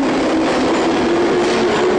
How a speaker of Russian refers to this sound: а в московском метро, самом посещаемом месте столицы, во время движения поездов шум доходит до 90, а то и превышает 100 дБ. Но это на платформе, а в кабине, особенно новых поездов, уровень шума в норме.